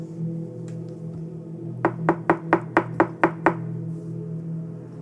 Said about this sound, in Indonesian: Pintu itu terketuk lagi, kali ini lebih keras.